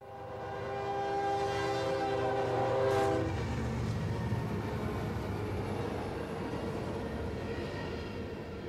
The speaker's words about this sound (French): Au loin, elle entend un train passer sur le chemin de fer, sans doute surchargé d'une cargaison de roches explosées venant de la mine Morrison à Levac.